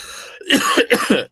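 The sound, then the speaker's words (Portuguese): Two rough, throaty coughs in quick succession, fairly loud, with no talking around them. “Agora, saúde, tosse, tosse, tosse, tosse, tosse,”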